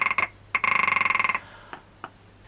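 A rock ptarmigan calls: two quick harsh clicks, then a rapid, dry, rattling croak lasting nearly a second, trailed by a couple of fainter clicks, with no voices.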